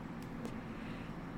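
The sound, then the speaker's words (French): A heavy truck passes behind the speaker, a steady low engine drone filling the background for the whole moment, with no one speaking. “Et euh, voilà, je sais pas si tu entends le camion euh, qui passe derrière moi, mais ça fait partie euh, de, c'est ça, ça fait partie du moment présent.”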